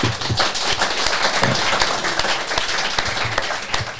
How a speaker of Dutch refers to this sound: Dames en heren, Elma van Haren. Applaus.